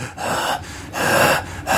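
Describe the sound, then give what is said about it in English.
A voice imitates heavy panting, with three or four loud, harsh breaths in a quick, uneven rhythm, each a broad rushing burst with short gaps between. “He's running, he's breathing like.”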